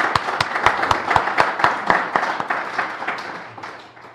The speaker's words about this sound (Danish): Jeg synes, vi skal hilse dig velkommen med en klapsalve.